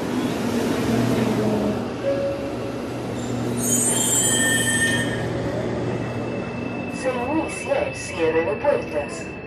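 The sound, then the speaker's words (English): A subway train rumbles through a station, its wheels letting out shrill, high metallic squeals midway through, with faint crowd voices murmuring toward the end. “A few blocks down from Plaza Italia is where the whole mess started, in a subway station called Universidad de Chile.”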